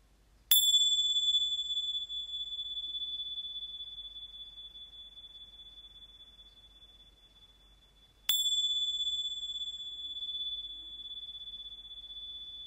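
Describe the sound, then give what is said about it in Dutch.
A small bell rings twice, each clear bright strike followed by a long shimmering ring that slowly fades, with quiet surroundings and no talking. “Dus als je je belletje hoort, ga dan op je eigen tempo aan de slag.”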